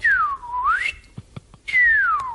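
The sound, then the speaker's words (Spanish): A person whistles with their mouth, imitating a starling's call: a loud swooping tone that dips and rises, a pause with a few soft clicks, then a second descending whistle. “Es un silbido que va. Lo ha hecho con la boca, ¿eh?”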